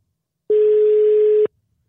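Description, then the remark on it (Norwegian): A single steady telephone ringback tone, one clean beep lasting about a second, heard alone on an outgoing call with silence before and after. “Skal vi høre om det ringer.”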